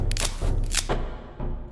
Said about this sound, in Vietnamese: Như tiếng cành cây bị bẻ gãy